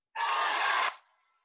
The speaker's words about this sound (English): The crowd just went wild for you.